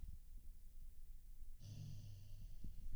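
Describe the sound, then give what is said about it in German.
A sleeping, dreaming female dog gives quiet, low snorts and breathy rumbles, then a soft, drawn-out growl about halfway through while baring her teeth in her sleep. Faint, with no one talking. “Sie knurrt und. Fletscht die Zähne im Schlaf.”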